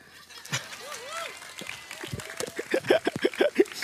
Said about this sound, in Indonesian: Perlu tepuk tangan sedikit aja.